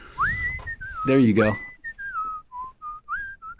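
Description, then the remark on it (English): A person whistles the theme tune of The Andy Griffith Show, a bright melody, the pure tone gliding between notes in a steady rhythm, briefly interrupted by a short spoken phrase before the melody continues. “How about the whistling the Andy Griffith?”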